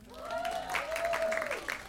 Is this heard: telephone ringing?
no